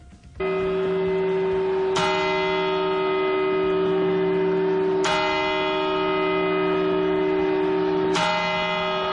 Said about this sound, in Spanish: Abrazos, eh, besos, en fin, celebraciones, eh, las 12 campanadas, y así, en el año 2020 celebraban los españoles en Madrid la llegada de este nuevo año.